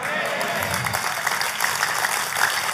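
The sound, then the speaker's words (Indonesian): A church audience applauds for Jesus steadily, a dense wash of many hands clapping at an even loudness throughout, with some voices mixed into the crowd noise. “Kalau mau tepuk tangan, tepuk tangannya lebih meriah buat Yesus Tuhan kita.”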